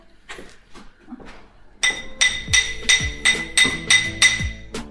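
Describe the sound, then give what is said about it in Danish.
A hammer strikes gold, stretching the flexible metal to adjust its size, in a steady run of about eight bright, ringing clinks, roughly two per second, after a few lighter softer taps at the start. “Så nu tager jeg lige hammeren og hammer lidt.”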